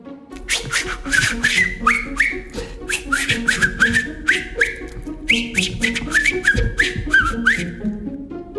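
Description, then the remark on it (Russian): A man whistles a lively tune while walking, repeating short rising phrases in a steady rhythm, with faint rustling and clicking noises underneath. “Вдруг видят, идет человек, насвистывает.”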